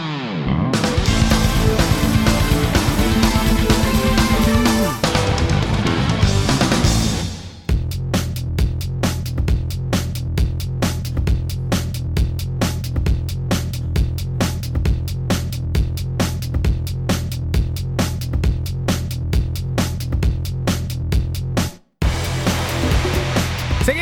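Loud electronic music from the Saints Row video game soundtrack opens with a dense, distorted wash, then drops into a driving, steady beat over heavy bass, with a brief cut to silence just before the end. No voices.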